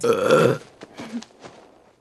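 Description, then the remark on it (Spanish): Actress Cameron Díaz lets out one loud, raspy burp lasting about half a second, escaping by accident while she recorded her dialogue after drinking a carbonated soft drink, followed by a few faint, soft mouth sounds and breaths trailing off into quiet. “El eructo que han oído se le escapó a Cameron Díaz sin querer mientras grababa sus diálogos.”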